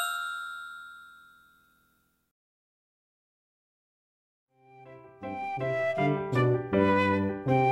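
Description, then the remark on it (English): Two nickels clink into a piggy bank, a bright metallic clink that rings out and fades over about two seconds. Silence follows, then tuneful music begins. “Two nickels go clink into my bank.”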